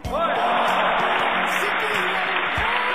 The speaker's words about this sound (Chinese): 作为新上任的小鲜肉呢，也需要大家伙的支持与掌声。来，此处应当有掌声，好吗？